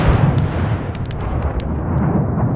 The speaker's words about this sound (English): The barrel started simmering and cooking and heaving, and then all at once it exploded like a dozen cannons shooting themselves.